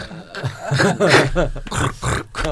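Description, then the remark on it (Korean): A person makes a rapid series of snore-like nasal snorts and grunting breaths through the nose in a rough rhythm, almost like beatboxing, with brief pauses between bursts. “이거 나 코를 비- 고세요. 비트박스 만들어줘.”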